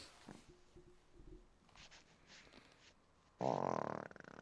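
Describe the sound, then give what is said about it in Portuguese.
A slow, drawn-out fart: a low, faint, sputtering drone that drags on for a few seconds, then suddenly bursts into a loud, rough, rasping blast at the end. “Peido sonolento? Mas no final ele emenda, ele engata.”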